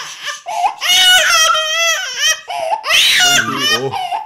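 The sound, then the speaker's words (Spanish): A young child wails in loud, high-pitched bursts, the cries wavering and breaking into sobbing gasps over about four seconds. “A veces está transmitiendo, a veces empieza a llorar los niños.”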